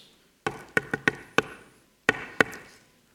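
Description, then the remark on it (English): Rhythmic knuckle knocking on a door while going door to door in Mexico, crisp: a quick run of five raps, a brief pause, then two firmer knocks, with no voices. “Knocking on a door, you put a little rhythm to it.”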